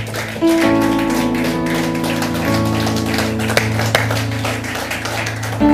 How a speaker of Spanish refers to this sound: Pónganse de pie. Dale un aplauso fuerte al rey. Vamos, que se oiga en el cielo. No hay fuerza. Si le va a dar un aplauso, házelo fuerte.